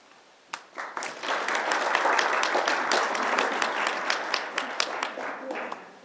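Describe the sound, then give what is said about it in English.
An audience, asked by a speaker to applaud as soon as he steps into a space, bursts into applause, many hands clapping in a dense, steady wash that holds at a fairly even level for several seconds, with a few sharper individual claps standing out. “I'm going to step away from here, and I'm going to pretend I'm stepping into and what I like you folks to do, when as soon as I step into that space, is just applaud, you or me.”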